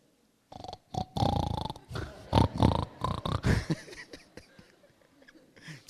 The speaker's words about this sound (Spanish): ¿Ha oído usted el gruñir de los cerdos? Imagínate que te lleguen a dar serenata. Un cerdo.